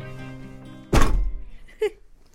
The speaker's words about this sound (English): That's the sound of the 2019 Booker shortlist, all 3,000 pages of it. It's the longest shortlist of recent years,